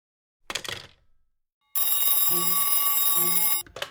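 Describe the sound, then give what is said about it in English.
A brief clatter, then a telephone bell rings loudly in one sustained, continuous burst of nearly two seconds, with no talking over it. “I, I don't know what's the matter with this telephone tonight, but it's positively driving me crazy.”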